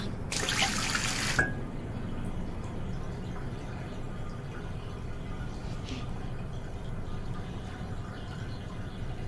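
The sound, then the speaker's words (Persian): A tap gushes in a brief, bright burst near the start, then water keeps running and splashing quietly at a sink for several seconds as someone washes their face, with no one speaking. “چی گفتم بیرونی یا آبی به سر و صورتت بزن که بریم میتونی باشی؟”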